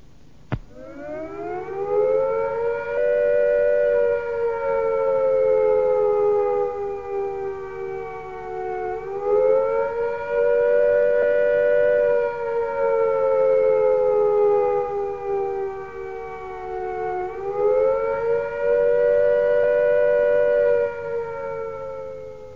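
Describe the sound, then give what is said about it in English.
A loud civil defence air attack warning siren wails continuously, its pitch rising and falling in slow cycles roughly every eight seconds, with no voices over it. “First, if you are at home, if attack is imminent, you will hear the attack sound like this.”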